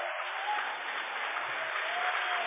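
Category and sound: crowd, audience applauding loudly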